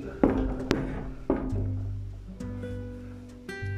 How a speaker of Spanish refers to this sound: Él se acerca con la misma intención, el mismo enfoque, la misma energía y toca a esa puerta de madera, la cual toca y se escucha.